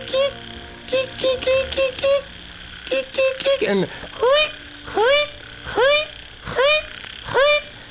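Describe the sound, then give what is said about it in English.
A person's voice imitates a frog chorus: frog-like calls repeat in quick bursts, first a rapid run of short notes and then a slower series of rising, twangy croaks, loud with little pause between them. “the loudest frog chorus you've ever heard”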